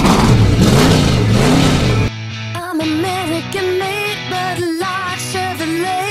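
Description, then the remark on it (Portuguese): A car engine revs loudly with a rough, wavering roar, then shifts into a higher, whining tone that rises and dips as it accelerates, continuous throughout. “Aí, sim, carro.”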